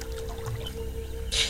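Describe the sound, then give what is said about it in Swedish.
A single splashy kayak paddle stroke swishes through water near the end, over a steady low hum and faint watery trickling, with no voices. “Jag tror att jag följer dina paddeltag och det är också dina andetag.”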